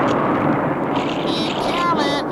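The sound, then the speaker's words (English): A loud, continuous rumble of thunder from a storm blowing up over a lake rolls through without a break, broad and heavy, with what may be a faint voice rising briefly near the end. “There's a storm blowing up over the lake.”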